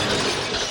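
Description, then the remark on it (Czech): A small elephant figurine breaks in a brief, fairly loud burst of crunchy, bright clattering noise lasting under a second, with no voices over it. “Rozbila toho sloníka.”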